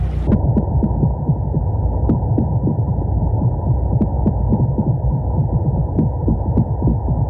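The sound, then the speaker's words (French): A steady underwater recording from sensors at about 30 metres depth among rocky scree and sand, filled with rapid, low-pitched drumming pulses from a male brown meagre fish, repeating in dense rhythmic bursts like a machine gun, over a constant hum and occasional faint clicks. “À l'intérieur de ce crépitement, j'entends donc euh, des bruits de tambour euh, qui doivent être euh, un mal de corbe.”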